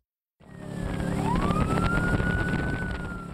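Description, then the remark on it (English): A police boat siren wails upward in a rising sweep over the loud, steady roar of an engine, starting abruptly after a moment of silence, as wildlife police on the Columbia River chase a boat carrying illegal sturgeon. “It's a high speed pursuit in an unlikely place the Columbia River. Wildlife cops are chasing a boat with illegal sturgeon on board.”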